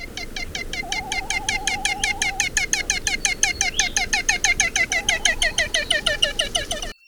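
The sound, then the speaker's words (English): A male frigatebird's hoarse courtship cackle, uttered on its breeding grounds while it inflates a brilliant orange balloon-like pouch below its bill to attract a female: a rapid, steady series of rasping, chattering notes, fairly loud, running for several seconds with no talking. “the best place to hear their vocalizations are on their breeding grounds, where the males attempt to attract females by blowing up a brilliant orange balloon like pouch below their bills and uttering a hoarse cackle when the female comes near.”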